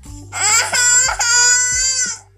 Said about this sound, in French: Oh, on entend un petit gars dans le grenier. Il y a comme un petit garçon dans le grenier qui crie.